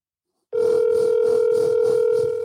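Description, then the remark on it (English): After a moment of silence, a phone line's ringing tone comes in, a steady, fairly loud electronic hum that holds unbroken to the end, with no voices. “I should have called him on the uh on the the house phone”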